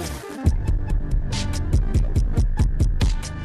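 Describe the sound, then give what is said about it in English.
A loud, steady beat drenched in heavy bitcrushing distortion, its punchy kicks and snares coming in a fast regular pulse, wrapped in gritty, crackling digital fuzz with no voices. “That's a big bit crushing.”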